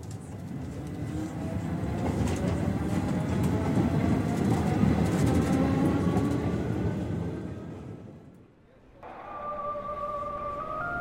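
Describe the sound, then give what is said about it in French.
An RER E commuter train to Roissy rumbles steadily along with a droning motor whine, fades briefly near the end, then a clear high tonal hum rises as it carries on. No one speaks. “Le jour du départ, Julien prend le RER e pour Roissy.”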